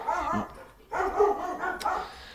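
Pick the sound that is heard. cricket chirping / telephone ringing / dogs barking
dogs barking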